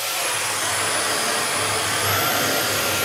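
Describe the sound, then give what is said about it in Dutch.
A Dyson stick vacuum runs with a loud, steady whine as it is moved toward spilled milk powder, then about two seconds in its pitch lifts and the suction grows louder and more forceful as it senses the dirt. No one is speaking. “En dan hoor je, dan gaat hij in één keer harder zuigen.”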